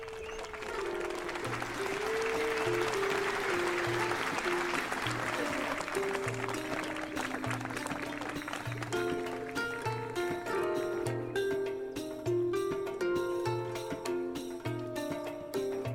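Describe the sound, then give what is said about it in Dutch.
A crowd cheers and claps loudly as music starts playing, while priests and priestesses come out in a procession. The music has a steady pulsing bass and melodic lines. The cheering is strongest in the first half, then the music takes over. “Maar dan begint iedereen te juichen zodra de muziek gaat spelen.”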